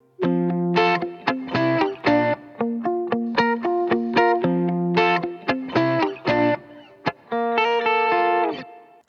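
A Korean pop song plays on the radio show Lee Eun-ji's Gayo Gwangjang, loud and steady, with bright layered chords hitting in a punchy rhythm, then a couple of brief breaks near the end. No one talks over it.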